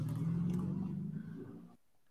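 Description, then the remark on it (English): A car engine rumbles loudly as the vehicle speeds away, a steady low roar that fades slightly before cutting off abruptly after under two seconds. “Police say eventually robbing the 55 year old driver, stealing a big bag of cash before darting back into the bins as the car speeds away.”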